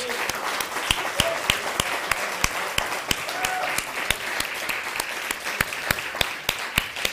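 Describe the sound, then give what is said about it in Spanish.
Steady audience applause fills the whole stretch, a dense wash of many hands with sharper individual claps popping out in a loose, fairly regular rhythm. “Un fuerte aplauso al bendito sea.”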